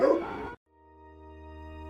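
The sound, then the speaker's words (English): A single loud dog bark lasting about half a second as dogs approach, then a brief silence before a steady, sustained tonal drone fades in and holds. No one speaks. “Dogs, they're coming. They're coming your way.”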